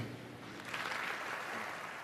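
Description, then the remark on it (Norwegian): Sustained applause from a large audience at the Oscars ceremony as a singer is introduced to perform an Oscar-nominated song, a dense wash of clapping that swells slightly partway through and continues steadily without any voices. “Applausen til tross”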